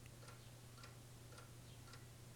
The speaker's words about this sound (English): Let's go through into the bedroom where the ticking clock is.